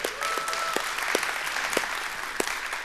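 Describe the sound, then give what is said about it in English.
A large church audience applauds and makes noise to welcome its Tupelo campus joining live. The clapping is a dense, steady wash, with a few sharper claps and faint cheers or whistles rising above it throughout. “Give it up, make some noise for those guys over there.”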